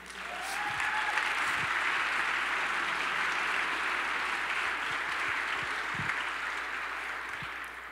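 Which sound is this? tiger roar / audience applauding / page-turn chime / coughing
audience applauding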